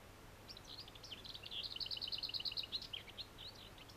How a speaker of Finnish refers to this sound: Hernekerttu